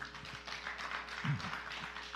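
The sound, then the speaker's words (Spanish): A crowd applauds steadily after a prayer, giving a loud round of applause to the Lord, a dense wash of many hands clapping at once that holds for the whole stretch, with a brief low voice rising beneath it partway through. “Denle un aplauso fuerte al Señor.”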